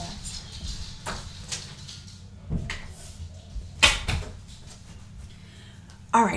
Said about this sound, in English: Hold on, I've got to shut this door because my dogs are whining. One second.